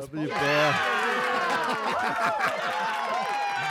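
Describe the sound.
A group cheers and whoops loudly together, many voices overlapping in rising and falling shouts, with some scattered clapping mixed in throughout the few seconds.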